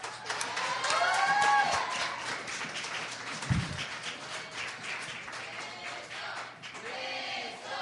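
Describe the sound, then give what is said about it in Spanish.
A church audience bursts into sustained applause for the speaker's wife, a dense steady clatter of many hands lasting several seconds, with a few raised voices whooping over it before it tapers slightly near the end. “Le doy, les pido una, ah, ya que aquí en la iglesia nos gusta mucho aplaudir, si ¿sí se fijaron jóvenes visitantes, bueno, le pido un aplauso, para mi esposa.”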